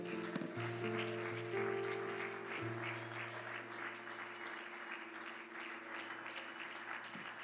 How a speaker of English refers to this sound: Can the church give the, give the Lord a hand clap of praise?